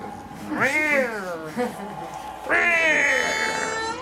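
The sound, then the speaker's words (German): Two drawn-out, anguished yowls of an electronically amplified cat from the start of the Texas Chainsaw Massacre soundtrack, with a harsh, processed edge, the first rising and falling, the second long and strained, loud with a faint hum between them. “Diese elektronisch verstärkte Katze am Anfang, ne?”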